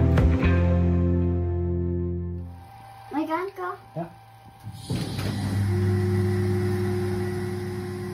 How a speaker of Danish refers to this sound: Det du hører her er lyden af en dansk astronom og hans treårige søn, der er i gang med at åbne en kuppel til et teleskop. Teleskopet står på en tør plet græs i Queensland i Australien,